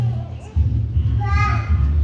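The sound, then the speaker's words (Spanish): Faint voices of children playing outside, with one brief high-pitched call rising midway, all over a steady, heavy low rumble. “hay unos niños jugando afuera.”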